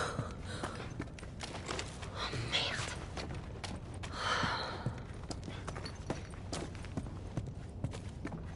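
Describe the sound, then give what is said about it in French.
Heavy, breathy panting of an out-of-breath woman, with a few louder gasping breaths standing out, over a steady background of soft thuds and shuffling movement. “Je suis juste un peu essoufflée.”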